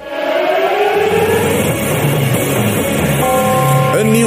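A loud, steady alarm siren wails continuously with layered tones sliding slowly downward, then a cluster of new tones switches on near the end. No one speaks.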